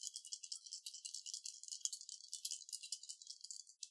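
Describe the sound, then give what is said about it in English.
Dice rattle continuously for about four seconds as they are shaken, a dense clicking clatter that ends with a brief final burst as they are tossed. No voices are present. “I will give you triple advantage, so you could th- you could do three dice and pick the best one.”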